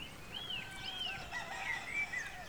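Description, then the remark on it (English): A few cockerels crowing faintly at a spring dawn in London, thin, rising calls overlapping in a quiet, open outdoor hush beside the River Thames lapping against its banks, with no voices. “For a moment, the night's silence is broken only by the crowing of a few cockerels and the lap of the River Thames against its banks.”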